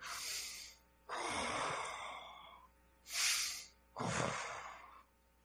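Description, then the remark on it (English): A voice imitates the Darth Vader-like breathing of a man on an oxygen line: two slow cycles of heavy, raspy breaths, each a hissing inhale followed by a longer, lower, rough exhale, with no talking. “He had his on his oxygen line, and he'd greet me with a big smile, sounding like Darth Vader.”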